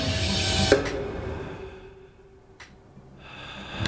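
Heavy breathing: a loud, rough exhale that fades into a quiet pause, then another breath swelling back up. No one speaks.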